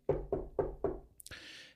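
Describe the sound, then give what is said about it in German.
Four firm, evenly spaced, resonant knocks on wood, followed by a brief brighter rustle or scrape as the last sound fades. “Und im Dezember, wenn alles klappt, ich klopfe auf jedes Holz, das ich finden kann.”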